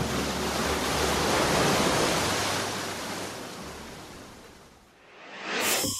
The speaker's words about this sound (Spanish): Y es playa salvaje playa salvaje, donde las rocas golpean al mar